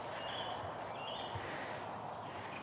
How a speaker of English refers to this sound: Um, a rather sort of pinkish, gentle sunset. Been a beautiful. What are we? Mid-May, aren't we? Beautiful sunny day. Quite cold now. It's clear sky, it's half a moon, and we're getting the the best efforts of resident birds. Sort of dusk chorus.